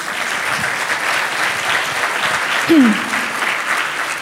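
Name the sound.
audience applauding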